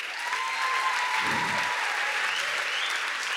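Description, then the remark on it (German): Steady applause from an audience at an evening church worship service, a dense wash of many hands clapping at an even level throughout, with no voices standing out above it. “Für die, geben dir einen Applaus.”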